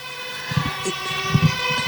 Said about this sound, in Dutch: Er eh, komt een eh, brandweerauto voorbij. Eh. Maakt niet uit, praat gewoon door.